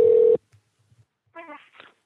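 A short burst of steady telephone ringback tone from an outgoing phone call, loud, cuts off abruptly, followed by near silence and then a brief voice-like sound.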